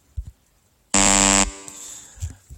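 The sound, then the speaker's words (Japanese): A single loud, harsh buzzer blares for about half a second, a dense rasping quiz-show wrong-answer sound effect marking a guess of salami flavor as incorrect, with a brief echo trailing off and faint bumps before and after. “ブッブー効果音鳴らしちゃおう。”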